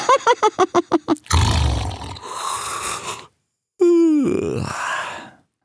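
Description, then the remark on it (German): A female hyena yawns loudly. A stuttering run of short grunts opens into a long, breathy groan, followed after a brief pause by a second drawn-out, sliding yawn. No one speaks. “sagte sie und gähnte.”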